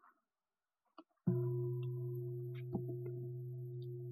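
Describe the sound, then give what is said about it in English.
A meditation bell is struck once, clear, its rich steady tone ringing out and sustaining without fading much, preceded by a couple of soft handling taps. “So, for example, I can ring the bell”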